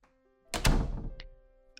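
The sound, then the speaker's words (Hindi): A metal chain latch on the two-leaf door of a room behind a well is worked open with a heavy clunk and rattle, followed by two small, bright metallic clinks as it settles. No one speaks. “अजय ने कुएं के पीछे वाले कमरे के दो पल्लों के दरवाजे की साकल खोली”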